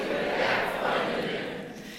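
A live audience of mountain enthusiasts in Wolfratshausen shouts a greeting together in a loud, sustained cheer lasting about two seconds, many voices blending into a dense roar that fades slightly at the end.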